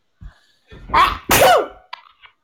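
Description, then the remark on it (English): A loud sneeze in two forceful bursts, a sharp inhale-like blast followed by a bigger explosive one, then a few faint trailing sounds. “Bless you. Corona.”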